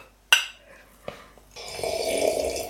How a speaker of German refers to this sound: Dann schlürfen wir jetzt einmal um die Wette. Prost.